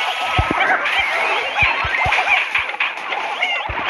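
A steady rushing hiss of video game water, like a splashing waterfall effect, with soft low thuds dropping in irregularly underneath. No one speaks.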